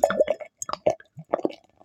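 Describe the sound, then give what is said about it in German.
Beer with stone pine (Zirbe) wood aroma, brewed with South Tyrolean malt, poured from a green-labelled bottle into a glass, heard as a run of irregular glugging plops and liquid splashes that pause briefly and then resume. No one speaks. “Gehen wir es erstmal ins Glas.”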